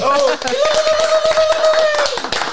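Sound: applause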